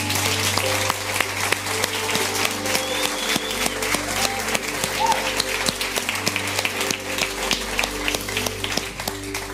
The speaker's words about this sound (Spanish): Le das un fuerte aplauso a tu Dios en el día de hoy.